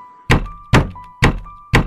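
Four loud, evenly spaced knocks on a window, each a sharp thump with a brief ringing tail, about half a second apart, over a faint steady hum.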